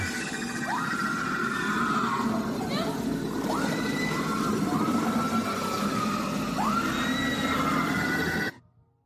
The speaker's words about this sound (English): And all you hear is that screaming as it fades to black and the closing credits start.